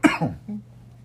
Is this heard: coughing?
yes